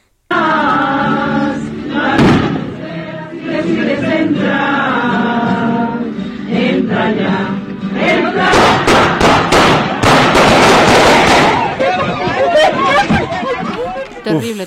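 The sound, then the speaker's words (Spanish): Rapid bursts of gunfire crack out in clusters over a murmuring crowd during a burial in San Francisco del Rincón, Guanajuato, Mexico, with music playing early on before the sharp, loud shots take over. “¿Te parece si escuchamos este momento que nos narras cuando pues prácticamente accionan las balas, accionan las armas de fuego mientras está el sepelio?”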